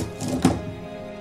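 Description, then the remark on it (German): A large hundred-sided die, rolled to determine what a stay at a guesthouse cost per night, lands with a single dull knock, a brief hollow clatter at moderate loudness over faint background hiss, with no voices. “Ich, ich hätte jetzt gerne, dass ihr beide einen W100 würfelt.”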